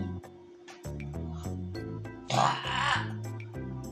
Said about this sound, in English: Excuse me for my sister's nasty burps.